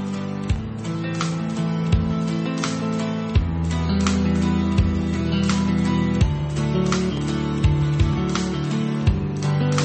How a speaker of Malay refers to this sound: Uh, tapi itulah aku kasih kurang dengar dulu lah aku akan putarkan lagu iaitu lagu ketiga aku